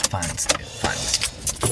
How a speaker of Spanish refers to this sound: Esto sí, pero lo del coche aparcando y tal.